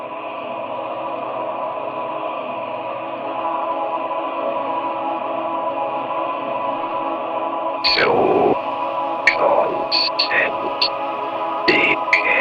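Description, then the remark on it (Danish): A synthesized choir pad holds steady, layered tones awash in reverb, then sweeping swells and short bright stabs break in over it toward the end of the electronic track. “er altså det her choir-lyd, som...”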